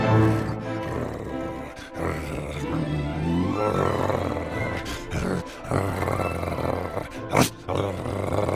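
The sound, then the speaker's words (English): A dog named Apollo, holding a bone, growls low and steadily for several seconds at his own reflection in the water, a rumbling, rough sound that swells and dips, with a few short breaks and one sharp burst near the end. “Apollo decided he wanted both bones, so he growled at the other dog to see if he would drop it.”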